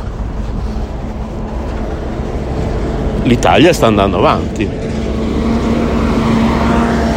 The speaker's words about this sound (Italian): Sì, certo, sentite qualche autobus passare, vorrei anche vedere.